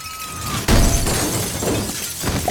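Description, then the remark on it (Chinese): Tempered glass shatters with a sudden loud crash as a man who slipped on a teddy bear's eye crashes through it and flies out. About two seconds of dense, crackling, tinkling debris follow. A faint, thin tone slides slightly downward just before the impact. “撞碎了钢化玻璃，飞了出去。”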